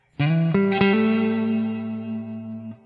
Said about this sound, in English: So this is what the guitar sounds like clean.